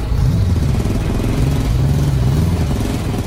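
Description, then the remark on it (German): A heavy motorcycle engine rumbles loudly and steadily, its deep throaty pitch rising and dipping slightly as the throttle is worked, with no pauses throughout. “Die beiden Skelette schnappen sich zwei Motorräder.”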